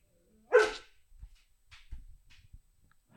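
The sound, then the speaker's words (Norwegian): A dog lets out a single sharp, loud bark at a cat it has seen, followed by a few faint, muffled thumps and rustles. “Da har vi en hund som så, så en katt.”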